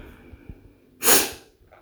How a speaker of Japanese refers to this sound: くしゃみ出そうだな。